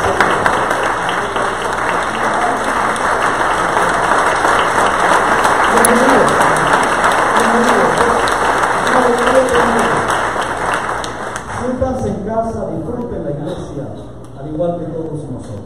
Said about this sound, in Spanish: Quiero darles un aplauso de bienvenida a ustedes.